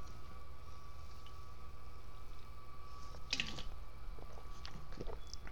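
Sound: sipping and swallowing water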